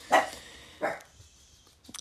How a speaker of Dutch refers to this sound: Um, ondertussen ehm, begint mijn hond te blaffen, want er komt iemand binnen.